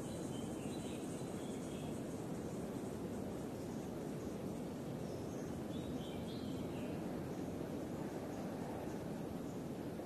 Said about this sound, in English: sounds coming from nearby chirping of birds